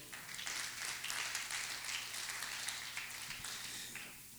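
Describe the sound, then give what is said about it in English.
An audience applauds together in the morning as a clap offering to the Lord, a dense, steady wash of many hands clapping that holds at an even level for several seconds without voices on top. “Can you give the Lord a clap offering this morning?”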